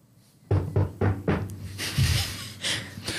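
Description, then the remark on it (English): Four firm, evenly spaced knocks on a wooden front door, loud, followed by a burst of softer, hissy rustling noise. “But it's best for us to see that arrangement as the door knocks.”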